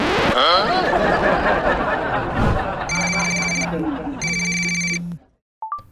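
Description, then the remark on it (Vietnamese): A telephone at the Hương Tuấn bánh chưng (Vietnamese rice cake) business, which is taking orders, rings twice in quick succession, each electronic trill lasting under a second, loud over a busy background of overlapping chatter, then a short beep as the line goes quiet. “Alo alo, bánh trưng Hương Tuấn nghe đây.”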